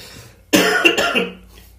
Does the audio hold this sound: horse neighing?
no